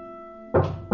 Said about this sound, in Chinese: 等一下，那是什么奇怪的声音？请你原谅我一下，外边有人在敲门。